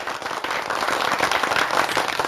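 A burst of steady applause, many hands clapping in a dense, crackling wash that holds an even loudness for a couple of seconds, with no voices over it.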